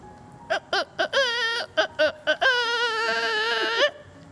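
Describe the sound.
A voice imitates a rooster crowing: a few short, sharp vocal bursts followed by a long, wavering high note, loud with no other sounds around it.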